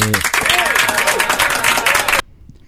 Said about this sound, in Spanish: De gracias a nuestros aplaudidores que vienen todos los miércoles a hacer nada más que aplaudir. Muchas gracias.